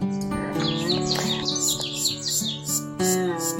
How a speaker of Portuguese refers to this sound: tem o cheiro do mato, o canto dos pássaros, dos grilos, é o manifestar da natureza.